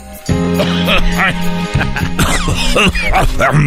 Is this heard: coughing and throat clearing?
yes